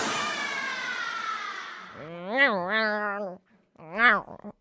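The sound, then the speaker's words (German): A cat gives two meows, a long drawn-out one followed by a shorter, sharper one, after a brief stretch of hissy, breathy noise. “Ich bin der schwarze Kater. Hexes Liebling.”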